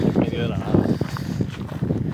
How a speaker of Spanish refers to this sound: Madre mía, el viento. Disculpad por el viento. Sí, ahora mismo aquí. Si sale contenido de calidad, este programa se publica a pesar del viento, pero es que estamos en monte abierto.